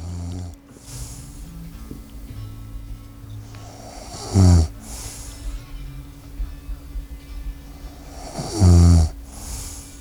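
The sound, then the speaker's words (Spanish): A man, a band's bassist, snores twice at a slow, steady pace, each deep rumbling inhale swelling up loud, with a low hum and quiet background noise in between; the snoring was recorded for an album. “Bueno, miren, esto acá grabaron el ronquido del bajista.”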